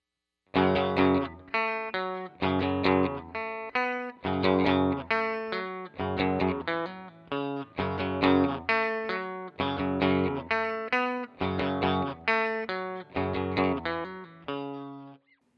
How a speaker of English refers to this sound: Next up, here's the Mustang GTX emulating a Blues Junior.